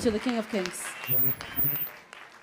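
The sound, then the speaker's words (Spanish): A church audience applauds loudly for the King of Kings, a dense patter of many hands clapping, with voices calling and cheering over the top in the first moments. “Dele ese fuerte aplauso al Rey de Reyes.”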